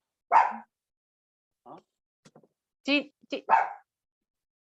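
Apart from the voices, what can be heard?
dog barking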